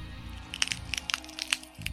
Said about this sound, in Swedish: Ett ljudligt pop hördes när högra överarmsbenet drogs ur sin håla.